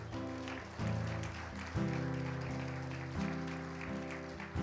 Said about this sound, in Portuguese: Dê mais uma salva de palmas ao Senhor.